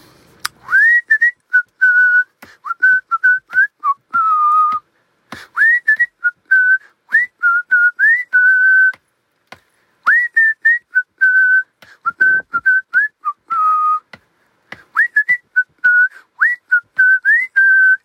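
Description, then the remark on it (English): A person whistles a lively tune while driving a child to school, with clear pitched notes bending and repeating in short phrases separated by brief pauses, and no talking. “One of the things that I do on the way to school with my youngest is I whistle.”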